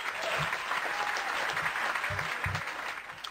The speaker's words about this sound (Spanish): hasta le voy a poner un aplauso. Venga.